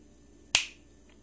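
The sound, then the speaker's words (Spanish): A single crisp finger snap, sharp and bright, with a quick decay into a quiet background hum; no voices accompany it. “Todo vuelve en verde, en agua, en fauna, en flora al chisquear los dedos.”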